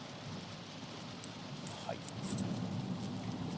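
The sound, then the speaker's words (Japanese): Heavy rain pours down in a steady, dense hiss that fills the whole stretch without a break, fairly loud, with small spattering ticks scattered through the wash. “はい、ちなみにものすごい雨が うるさくて、多分ね、雑談、雑本がだいぶ入ってる気がしますけども、大丈夫でしょうか。”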